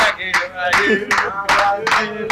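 A crowd claps in a steady, fast rhythm, the sharp bursts coming several times a second, while voices shout over the applause, applauding a man who serves them all.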